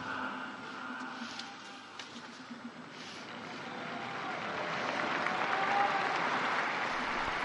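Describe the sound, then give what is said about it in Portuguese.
A large crowd of faithful applauding the Pope after he prays the Angelus, a dense steady patter of many hands clapping that swells louder toward the end, with no one speaking over it. “O Papa então acaba de rezar a oração do Ângelus e aplaudido pelos fiéis.”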